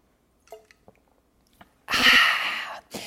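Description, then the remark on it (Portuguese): A person drinks water: a few small wet clicks and sips, then a louder breathy rush, like a swallow followed by an exhale, ending with a short sharp sound. “Peraí que eu vou tomar uma água aqui, amor.”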